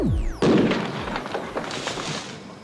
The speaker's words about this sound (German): Dann erhitzt er sehr vorsichtig den Sprengstoff. Und zwar so dosiert, dass er nicht detoniert, sondern nur sehr schnell abbrennt. Die Folge ist ein kleiner Knall, der den Zünder auswirft und die Hülle aufreißt. Der große Knall bleibt aus.